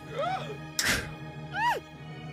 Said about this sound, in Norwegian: Og Ilse tar en kniv i ryggen.